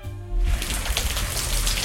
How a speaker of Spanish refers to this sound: Así sonaba la lluvia anoche en pleno centro de Sevilla, así que los nazarenos de varias hermandades que estaban en la calle tenían que resguardarse en la catedral.